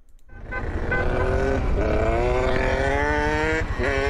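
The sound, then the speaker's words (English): A car engine starts up loud, then revs steadily as the driver drives off. Its droning pitch holds strong for a few seconds, with no voices. “So he just drives off.”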